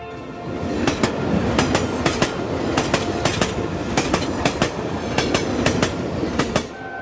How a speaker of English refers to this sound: The sound of the running train and her image in my mind.